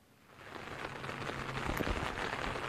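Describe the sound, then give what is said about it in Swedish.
Heavy rain pours down steadily on the farm Nesis gård during the Öppna trädgårdar (Open Gardens) event, a dense hiss of drops drumming on surfaces that swells over the first second and then holds loud and constant, with no voices. “här var lite uppehåll faktiskt, en minut eller två, men nu har det börjat åter ösa ner.”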